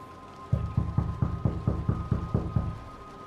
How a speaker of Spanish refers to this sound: Eh, ustedes se estacionan en el vehículo, se bajan y, y se acercan a la puerta y obviamente la tocan.